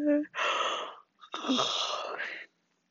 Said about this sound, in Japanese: 眠い。おっさんっぽいくしゃみしちゃった。眠い。